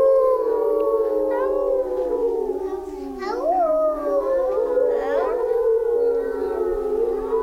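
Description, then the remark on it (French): Several voices, likely children, imitate a wolf's howl together, holding long wavering tones that rise and fall in overlapping glides for the whole stretch, loud. “Hé loup, fais-nous peur Fais-nous un vrai cri De vrai loup qui donne la chair de poule à des kilomètres à la ronde alors le loup prenait une grande inspiration, faisait rouler ses yeux, hérissait ses poils et criait Aouh”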